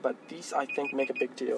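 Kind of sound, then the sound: signal or alarm, phone alarm ringing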